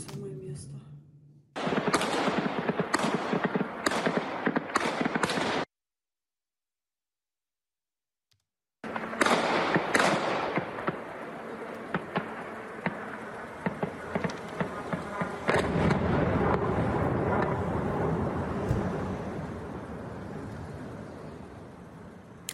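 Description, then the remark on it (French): Explosions from kamikaze drones: a series of sharp, loud bangs in quick succession, a brief silence, then a long stretch of dense crackling blasts and rattling, gunfire-like bursts under a steady roar. “Euh, et puis il y a eu euh, ces explosions que l'on a pu euh, filmer.”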